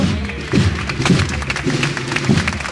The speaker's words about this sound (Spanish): Aplausos porque la Virgen está afuera.